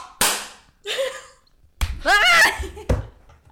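Two sharp hand claps land a few seconds apart, out of unison, with bursts of voiced laughter and vocal sounds filling the gap between them. The group is trying to clap together on a count of three to synchronize audio.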